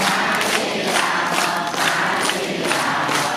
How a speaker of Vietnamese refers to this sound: chúng ta đồng niệm phật lớn lên vỗ tay thả chim nha a di đà phật